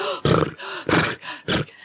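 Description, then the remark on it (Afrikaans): A person imitates a panting deer, a hart that has run to escape hunters, with three loud, harsh breathy gasps, evenly spaced, with short quieter breaths between them. “Hy hyg.”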